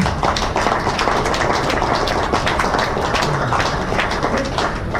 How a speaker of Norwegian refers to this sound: Jeg, jeg syns det også fortjener en applaus.